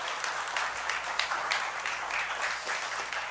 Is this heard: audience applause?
yes